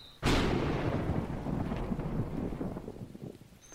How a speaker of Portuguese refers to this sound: nessa noite chuvosa onde os trovões ecoam pelos salões do castelo.